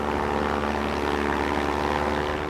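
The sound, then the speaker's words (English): A Ritter fan, a single prop-plane propeller inside a fan casing designed for film sets, roars steadily and loudly throughout, a constant droning whir with a broad rush of wind, used to simulate a hurricane; no talking. “a Ritter fan, it's like a, a single prop plane propeller inside a fan casing that just creates an enormous amount of wind.”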